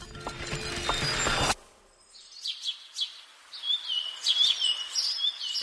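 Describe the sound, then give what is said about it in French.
A loud, dense mechanical rattle cuts off abruptly, then birds chirp and sing in quick, bright bursts with short pauses, clear against a quiet background. “Le chant des oiseaux, ça vient d'où?”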